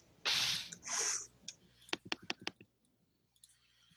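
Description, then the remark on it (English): Four dice rattle in a shaking hand with two hissing bursts, then tumble onto a hard surface in a quick run of about five sharp clicks before settling into quiet; the roll, an awareness check in a tabletop role-playing game, comes up four blanks. “It's either like all the pluses and minuses cancel out, or right now I just rolled four blanks.”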